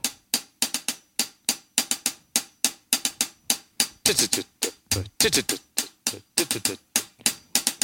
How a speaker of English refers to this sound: So let's start with the hi hat.